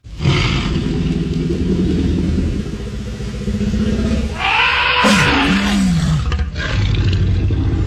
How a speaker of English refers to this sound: The T Rex's roar was made up of tiger, alligator, and baby elephant sounds.